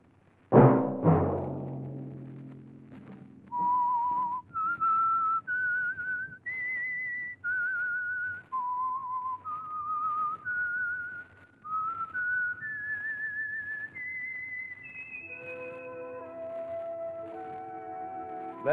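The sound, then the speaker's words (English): A loud sustained note opens, then a lone whistler carries a slow, eerie melody of held, stepwise pitches, rising gradually before a closing chord-like swell; no voices. It is the whistled theme of the Signal Oil radio program The Whistler. “Let that whistle be your signal for the Signal Oil program, The Whistler, each Sunday night at the same time.”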